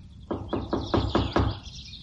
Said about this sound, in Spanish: Llamó a la puerta.